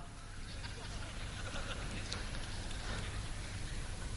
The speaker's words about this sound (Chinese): 掌声鼓励一下。